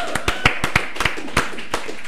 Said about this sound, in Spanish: Aplauso para esos muchachos, por favor.